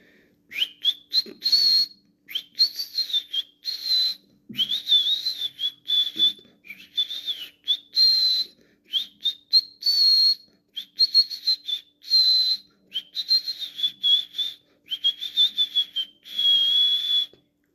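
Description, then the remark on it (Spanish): A person whistles a lively birdsong imitation of a goldfinch singing while perched on a large branch: rapid, warbling trills and chirps in a continuous run of short phrases with brief pauses, no talking. “Un día llegó un jilguero cerca de donde el jabalí vivía. Se posó sobre una gran rama y se puso a cantar.”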